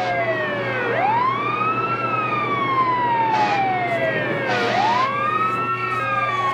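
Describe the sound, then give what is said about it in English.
Emergency vehicle sirens wail loudly together, their overlapping tones sweeping slowly up and down over a steady low rumble of traffic, with no one speaking. “the sirens necessary.”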